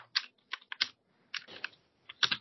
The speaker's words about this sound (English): I was typing on the wrong keyboard.